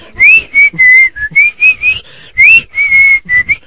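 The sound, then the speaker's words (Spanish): A person whistles the short, jingle-like tune of a TV commercial of the Gobierno de la República, with a series of clear sustained notes and a couple of quick upward slides, sounding bright and fairly loud with no talking. “¿Quieres que la chifle? Me cago. Me canso en ese comercial del gobierno de la República. ¿Cómo va? ¿Cómo va el chiflito?”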